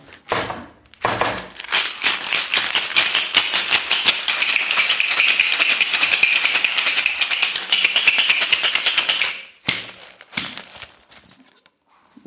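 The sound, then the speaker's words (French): Loud rattling of ice shaken hard in a cocktail shaker while mixing a mezcal cocktail, a fast steady rhythm lasting about eight seconds, then a pause and a few softer clinks and clatters. “Trop beau quand tu, quand tu checkes ton mescal”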